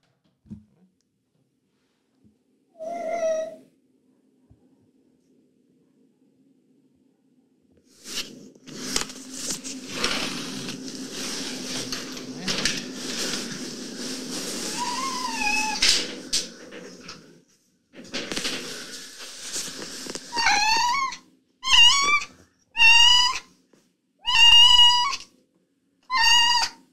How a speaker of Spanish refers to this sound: O sea, un maullido muy feo. Y empieza a maullar ella.